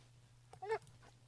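A dog gives a single short, high-pitched whimpering yelp indoors, over a steady low background hum, with no one speaking.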